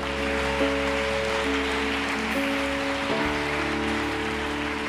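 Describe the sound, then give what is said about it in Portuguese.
An audience applauds the Lord in a dense, steady wash of clapping that lasts the whole time, with sustained keyboard chords holding underneath and shifting a few times. “Aplauda ao Senhor que é bom em todo o tempo.”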